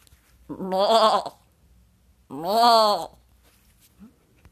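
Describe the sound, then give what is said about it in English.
A goat bleats twice, loud, each call a wavering, nasal cry lasting under a second, with a short quiet pause between them. “What you got, inspiration goat?”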